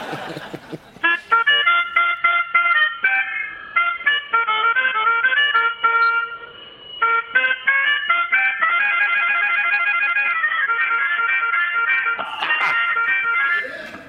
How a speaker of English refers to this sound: would would you mind just letting everybody hear how a little old melodica sounds? Oh yeah, I'll give it a little toot for you.